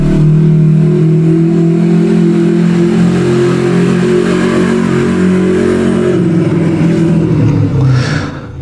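A loud motorcycle engine drones for several seconds, its steady buzzing hum dipping slightly in pitch and fading a little at the end as it passes.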